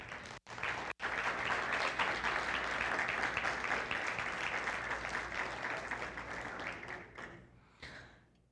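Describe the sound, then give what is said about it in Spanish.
A church audience breaks into sustained applause for God, a dense crackle of many hands clapping steadily for about seven seconds before thinning out and fading, with no one speaking over it. “¿Puedes dar un aplauso a Dios?”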